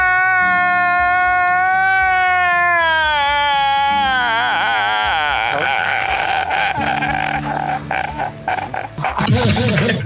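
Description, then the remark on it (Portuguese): A voice performs loud, exaggerated crying: long wavering wails that break into choppy, sobbing bursts, continuous for about ten seconds with no words spoken. “No início da pandemia eu tava chorando.”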